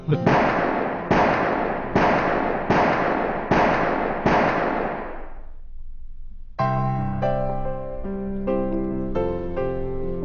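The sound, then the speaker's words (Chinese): Six loud, sharp gunshots fire in a steady rhythm at a shooting club, each ringing briefly before the next. After a short pause, a sustained tonal, music-like sound takes over. “这间枪会呢设备又齐全，会员素质又高又斯文。”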